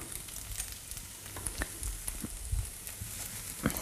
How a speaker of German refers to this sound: Und da brutzelt auch schon wieder unser schöner Tofu. Ach, eine Freude.